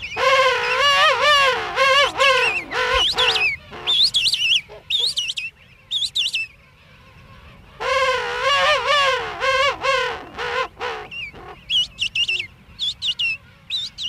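King penguin parents and a chick call back and forth in loud, warbling trumpet-like bursts, the adults' long harmonic calls alternating with higher, shorter chick peeps, over a low colony murmur.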